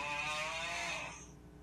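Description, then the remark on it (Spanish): A single raspy, buzzing snore from people snoring, lasting about a second, then trailing off into low background noise. Fairly quiet, with no talking. “Estaban roncando.”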